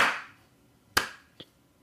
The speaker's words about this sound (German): An der Stelle mal einen kleinen Applaus für Ubisoft.